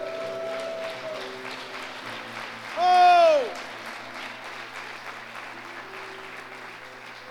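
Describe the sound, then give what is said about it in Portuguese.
A church audience claps steadily throughout in praise of God, a dense wash of applause, with a single voice briefly calling out a loud, rising-and-falling exclamation midway. “Dê um glória a Deus e aplauda aquele que vive.”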